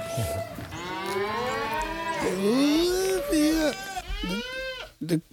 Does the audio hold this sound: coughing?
no